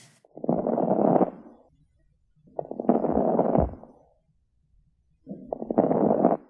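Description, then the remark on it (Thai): Crackles in a patient's lungs heard through a stethoscope during deep inhalation, caused by fluid-filled alveoli trying to inflate: three deep, rushing breaths, each about a second long and laced with rapid crackling pops, separated by short quiet pauses. No one speaks. “ภาษาอังกฤษจะเรียกว่า crackles นะครับ เวลาที่ผู้ป่วยหายใจเข้าลึกๆ ซึ่งเสียงเนี่ยไอเสียงแกรกๆเนี่ยที่เกิดขึ้นเนี่ยมันเกิดจากการที่ถุงลม มันพยายามที่จะพองออกมานะครับ”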